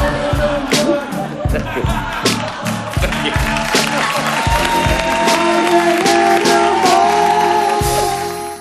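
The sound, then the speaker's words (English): Loud, sustained studio audience applause with cheering voices on Jimmy Fallon's late-night show as animal expert Jeff Musial is welcomed back, a dense wash of clapping that holds steady for several seconds, with band music playing underneath. “Please don't clap.”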